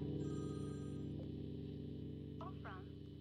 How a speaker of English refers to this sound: Oh, we're getting a phone call. Look at that. Let's say hello.